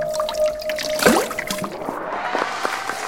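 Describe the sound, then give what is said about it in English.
Murky water trickles and sloshes, with a brief splashy surge about a second in, then settling into soft dribbling and scattered drips. No one speaks. “Look once more into my magical muck water.”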